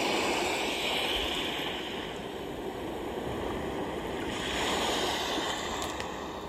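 Steady ocean surf at night rushes and washes continuously, a broad roar of breaking waves swelling slightly louder mid-way, with a faint wind-like hiss over it and no voices.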